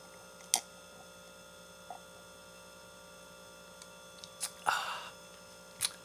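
Several quiet sipping sounds from a drink, with a slightly longer slurp near the end, all set against a steady low electrical hum and no talking.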